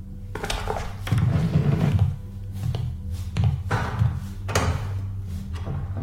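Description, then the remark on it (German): A woman opens tall floor-length windows to let in fresh air: a series of solid clunks and latch clicks with low rumbling thuds between them, spaced over several seconds, with no voices. “erhob sich und öffnete die bodentiefen Fenster, um frische Luft hereinzulassen.”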